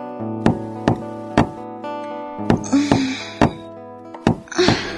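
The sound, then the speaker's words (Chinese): Dull, heavy knocking on a door, about seven thuds in a loose rhythm over a steady, low musical drone, with brief moaning voice-like sounds between the later knocks. “就在第二天晚上，我被一阵闷响的、有节奏的敲门声惊醒。”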